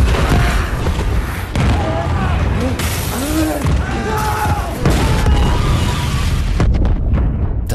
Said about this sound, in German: Es ist bereits die zweite Explosion auf dem russischen Atom-U-Boot Kursk am 10. August 2000 mitten in der Barentssee. Mit 118 Mann Besatzung war das Kampf-U-Boot zu einer Übung ausgelaufen. Jetzt sind Teile des Schiffs zerstört.